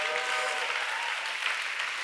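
A crowd applauds steadily, a dense wash of many hands clapping at even loudness throughout, with no pauses and no voices standing out.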